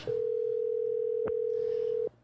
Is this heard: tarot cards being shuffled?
no